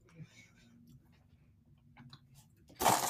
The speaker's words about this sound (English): Now everybody has to hear me chewing. I'm sorry, guys.